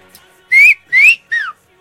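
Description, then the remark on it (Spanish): A person whistles a short three-note signal call meaning "I've arrived", clear: two rising notes followed by a shorter falling one, with no talking around it. “este chiflido quiere decir ya vine.”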